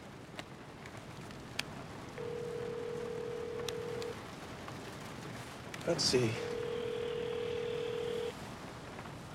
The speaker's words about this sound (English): Ring ring your cell phone number. Ring it now. Fucking ring it!